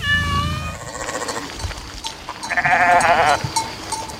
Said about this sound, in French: Et je suis maintenant auprès d'un troupeau de moutons dans les alpages bien souvent oublié des politiques.